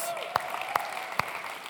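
An audience applauds in a steady, dense wash of clapping, with three sharper, louder claps popping out at roughly even intervals over the brief burst.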